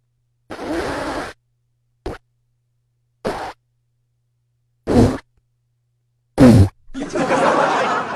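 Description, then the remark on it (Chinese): A sputtering old, ninth-hand Xiali car engine trying to start, likely imitated by a voice: five irregular, fart-like bursts separated by silence, the last loudest, then a longer rough rumble as it catches. The car makes this sound every time it is started. “你说吧，我这车每次启动啊都这动静，我一点招都没有。”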